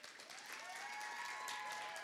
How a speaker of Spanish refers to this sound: De verdad, eh, eh, es un privilegio estar este, en una iglesia donde los músicos se entregan, le alaban al Señor con todo, lo hacen con excelencia. Y te lo digo de todo corazón. Así que un fuerte aplauso a los muchachos.